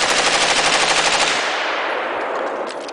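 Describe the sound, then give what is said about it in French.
Rapid machine gun fire from three German soldiers' machine guns on Place Bellecour rattles out in a dense, continuous burst, sharp repeated cracks merging into a loud roar that slowly tails off into a hissing echo. “Trois soldats sortent du rang, s'avancent, arment leurs mitrailleuses.”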